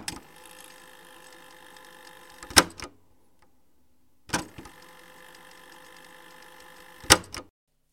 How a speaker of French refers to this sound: Alors peut-être que si vous êtes suffisamment ancien ou ancienne, ce son vous a dit quelque chose. C'était bien le bruit d'une avance rapide sur les radiocassettes.